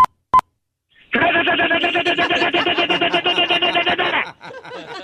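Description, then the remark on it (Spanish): A voice imitates machine gun fire with a rapid, steady burst of harsh, buzzy staccato pulses lasting about three seconds, loud and continuous, then trailing off into softer sputters. “Muy bien, ahora necesito escuchar una ametralladora.”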